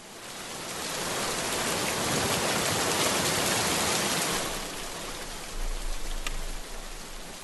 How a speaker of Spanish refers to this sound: Cuando oigo la lluvia golpear en las ventanas, vuelvo a escuchar gritos, aquellos gritos que se me pegaban en la piel como si fueran ventosas.